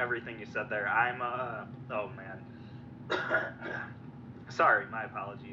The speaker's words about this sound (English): I was just choking on uh, some water, so if you heard me coughing in the background.